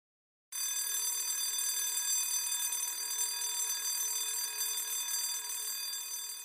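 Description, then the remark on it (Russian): An electric school bell of the kind used in Russian schools to start and end each lesson rings continuously after a brief moment of silence, a loud, steady metallic clatter that holds for about six seconds with no pauses and no voices. “В российских школах каждый урок начинается и заканчивается вот таким звонком.”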